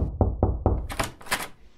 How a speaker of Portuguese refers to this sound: Fuça lá porque o síndico já tá socando a porta.